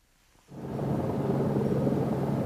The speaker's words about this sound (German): Das Geräusch von Hubschraubern über ihren Köpfen gehört zum Alltag der Menschen in Washington. Aber wenige Stunden vor der Amtseinführung hört es gar nicht mehr auf. Von oben wird die Stadt überwacht.